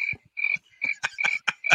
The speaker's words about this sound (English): Play that stupid cricket thing you just said.